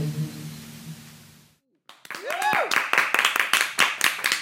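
Applause erupts after a short pause that follows a low, droning hum: a dense run of loud, sharp claps continues to the end, with a brief rising-and-falling whoop or whistle near the start.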